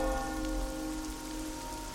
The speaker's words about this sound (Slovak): Je chladno a sichravo. Na mokrú zem dopadá drobný, hustý dážď.